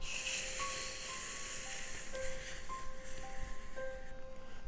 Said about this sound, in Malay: saya pun mandi macam biasa saya mandi Mandi Bunyi shower